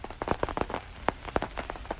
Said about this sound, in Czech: I když pršet nepřestává, tak prohlídku podkrkonožského lesa tady na farmě Ozdobnej v Bukovci jsme zvládli suchou nohou.